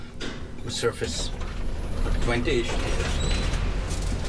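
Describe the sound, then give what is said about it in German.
An elevator rumbles steadily downward to about 20 metres below the ground's surface, a continuous low mechanical drone with faint creaks and clicks, while indistinct voices murmur briefly over the hum. “Die Fahrstuhlfahrt gibt Ihnen einen Eindruck davon, wie tief wir fahren.”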